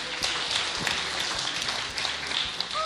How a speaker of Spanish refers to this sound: Sí, un aplauso, eh, por favor. aplauso para todos, sí.